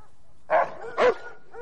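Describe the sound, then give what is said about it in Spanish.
Two sharp, loud dog barks ring out in quick succession, about half a second apart, with a faint third yelp trailing off at the end and no talking. “Los perros miran a Evelyn que observa tras una ventana.”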